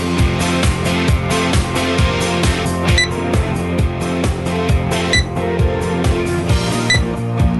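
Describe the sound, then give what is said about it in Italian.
A checkout barcode scanner gives a few short, high electronic beeps at irregular intervals, heard over loud rhythmic background music with a steady bass beat. “È la cassa. Lo sente? No. Il lettore ottico sta legge, sta del codice a barre.”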